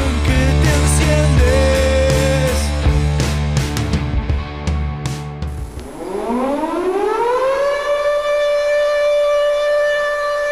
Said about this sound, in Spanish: Me acabo de despertar con la sirena. ¿Qué estará pasando a esta hora en Rivera? Algo grave seguramente.